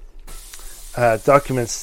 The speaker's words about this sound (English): That is uh, part of the air conditioning system. So we're in a climate-controlled environment at the moment, uh, and yeah, it occasionally belches and farts.